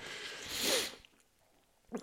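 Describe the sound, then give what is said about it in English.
A single forceful sneeze from a person with a cold and flu bursts out in the first second, a breathy hiss swelling to a sharp peak, then quiet follows with a faint rustle near the end. “Oh, I've been coughing. I've been sneezing uh, I'm coughing a lot.”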